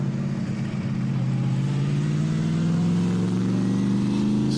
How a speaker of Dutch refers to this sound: Nee, dit is een achtcilinder, maar dan niet zoals wij ze kennen in de V-vorm.